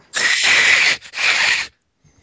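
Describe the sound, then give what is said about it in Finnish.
A person practising their cat yowling imitates an angry cat with two loud, raspy hissing yowls, the first longer, separated by a brief pause, followed by silence. “Mä harjoittelin mun mouruamista.”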